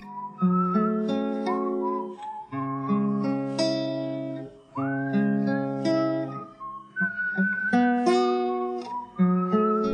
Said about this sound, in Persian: بعضی از قطعات این خواننده فقید هستش که سوت به عنوان ملودی عمل میکنه و خیلی قشنگ توی اون ریتمی که هستش میشینه و میتونه آهنگ و دلنشین هم بکنه